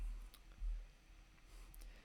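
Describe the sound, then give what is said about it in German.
A few faint, sharp mouse clicks, one early and then a quick pair near the end, quiet over a low background hum with no talking. “Ach, bin traurig bin ich traurig, muss ich wieder anders machen, ich muss erst hier klicken.”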